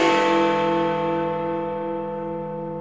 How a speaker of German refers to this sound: Die Glocke schlug zwölf.